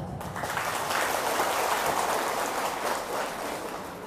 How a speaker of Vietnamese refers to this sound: đó là có thể làm được và nỗ lực để làm thì hãy dâng cao một tràng vỗ tay thật lớn